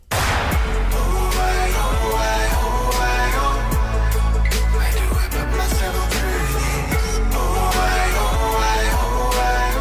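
A full-band pop song plays loud and steady throughout, with a strong beat, deep sustained bass and layered melodic instruments, no talking over it.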